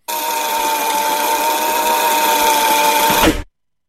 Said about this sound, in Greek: Η κασέτα που γυρίζει πίσω.